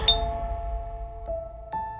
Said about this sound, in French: Mais non, rien à voir avec ce genre de sonnette.